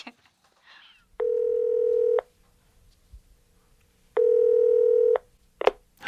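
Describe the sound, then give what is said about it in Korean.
A phone ringback tone sounds twice as a call is placed to the daughter of a suitcase's owner. Each steady buzzing burst lasts about a second with a long pause between, preceded by a brief faint rustle and followed by a short click. “바로 찾을 수 있을 거라 생각했는데 캐리어 주인의 따님에게까지 전화를 하게 될 줄은 몰랐다.”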